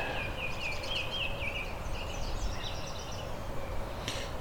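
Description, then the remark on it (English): A thin, very high-pitched song of quick repeated notes from a colorful songbird that is yellow with black streaks, orange on the face and black on the head, fairly faint over a steady low rumble of background noise, with no voices present. “Very high pitched song. Kind of reminds me of blackpoll warblers, just not as uh, weird sounding.”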